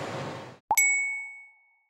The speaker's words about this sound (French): Une pinte de bière, un verre de vin et un bon ricard ne seraient pas aussi savoureux si on ne trinquait pas avant de les boire.